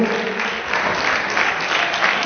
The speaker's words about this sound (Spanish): un aplauso para ella. Le invitamos al escenario, por favor.